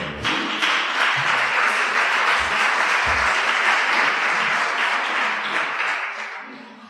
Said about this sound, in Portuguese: Você pode se assentar e então aplaudir a palavra do Senhor.